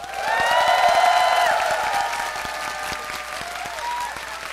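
Loud audience applause welcoming a band onto the stage, a dense patter of many hands clapping that holds steady for several seconds and eases slightly toward the end.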